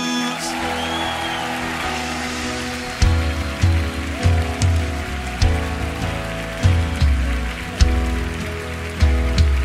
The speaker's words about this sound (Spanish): aplauso a Jesús.